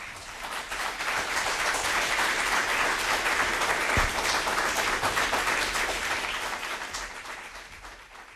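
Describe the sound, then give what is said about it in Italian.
Sustained applause from an audience for Simone Ivaldi, a dense wash of many hands clapping that swells quickly, holds steady for several seconds, then gradually thins out toward the end. “Saluto e ringrazio Simone Ivaldi, un applauso per favore.”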